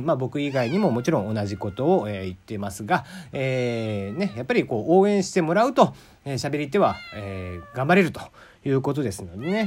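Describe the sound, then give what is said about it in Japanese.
A cat meows repeatedly close by, drawn-out rising and falling cries mixed in with a man talking steadily throughout. “なんか隣でずっと猫が鳴いていますけども。”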